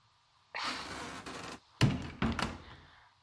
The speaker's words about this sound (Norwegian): Det du gjør nå, er at du går inn på badet, og så låser du døra. Si ifra når du har gjort det.